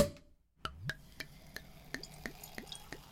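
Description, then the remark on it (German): Fresh carbonated beer fizzing in a glass after pouring: a steady series of small, crisp pops and bubbly ticks, quiet, repeating every fraction of a second with no voices. “Also da sieht man schon richtig oder hört man schon richtig, wie lebendig das auch ist. Also dass da auch Kohlensäure mit im Spiel ist, dass natürlich ein frisches Bier ist, ein erfrischendes Bier.”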